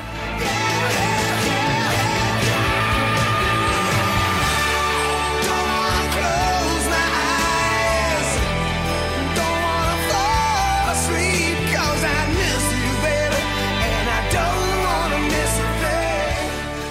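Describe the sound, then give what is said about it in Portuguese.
A loud, full-band rock ballad plays throughout, with a male voice belting sustained, soaring notes, singing "don't wanna close my eyes", over thick guitars, drums and steady bass. “gritando nos nossos ouvidos lá ah, don't wanna close my eyes”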